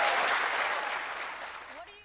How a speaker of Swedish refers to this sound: Ja, det är rungande applåder.